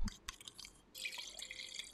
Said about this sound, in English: I had to pop back the Chardonnay wine bottle, and for ASMR sakes, let's pour it up.